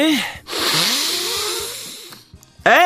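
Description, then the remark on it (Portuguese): A deep, noisy inhale taken during a breathing exercise, lasting about a second and a half, with brief voiced sounds just before and after it. “Bom, então vamos uh, começar uh, por um exercício de uh, respiração, ok?”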